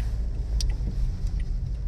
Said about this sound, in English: Um, I'm sorry, I'm having to wait for people. They're letting me in. We have such traffic, such traffic.